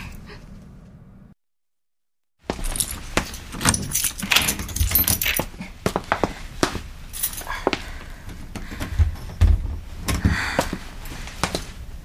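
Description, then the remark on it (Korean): A spare key for the school nurse's office jangles and clinks in a busy metallic rattle that starts abruptly after a short silence and continues in irregular bursts, preceded by a low faint hum. “이게 보건실 여분 열쇠.”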